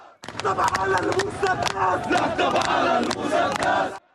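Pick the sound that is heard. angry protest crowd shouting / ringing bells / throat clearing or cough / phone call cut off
angry protest crowd shouting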